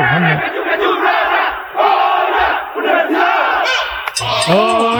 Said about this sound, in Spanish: a las afueras del hotel de concentración. Ahí enfrente de Perisur. La gente eh. silba. Levantan el dedo índice derecho.